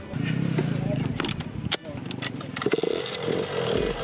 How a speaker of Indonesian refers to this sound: Tapi semua motor yang dipakai ini adalah motor-motor special engine atau motor dengan spesifikasi balap. Jadi kalau bagi yang belum biasa nih, sekali dibuka gasnya ini kerasa banget kejambaknya.